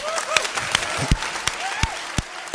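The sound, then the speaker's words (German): A church audience breaks into applause for people during the service, a dense wash of many hands clapping with a few sharper, louder claps standing out, plus faint murmuring voices underneath. “Kommt Kirche, wir geben diesen Menschen einen Applaus”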